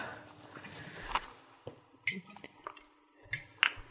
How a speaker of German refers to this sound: Dann noch einen kleinen Tropfen Olivenöl tue ich noch drauf.